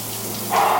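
Steady hiss of shower water running in a steam-filled shower room, a man standing under the streams, a dense spray of droplets that grows louder and fuller about halfway through, with no voices.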